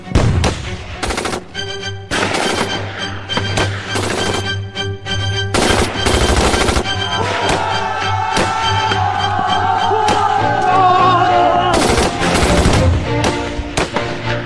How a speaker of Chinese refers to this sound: 好像是杰克式轻机枪的声音。